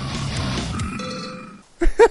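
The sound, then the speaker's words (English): Pigs squeal and grunt in two loud, short, throaty bursts near the end, after a stretch of rough, noisy background with a few faint high tones. “They're squealing, dude.”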